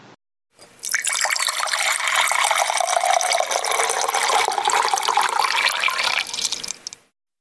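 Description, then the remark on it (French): Water pours steadily from a carafe or water fountain into a container for about five seconds, a continuous splashing gush that fades out at the end. No one speaks. “Donc place aux carafes et aux fontaines d'eau.”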